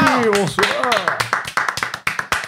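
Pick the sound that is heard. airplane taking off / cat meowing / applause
applause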